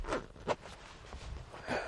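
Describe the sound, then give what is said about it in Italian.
A zipper being pulled in a few short, rasping tugs that stop and start as it gets stuck, fairly quiet, with no one speaking. “Anche la zip si è data una inchiodata.”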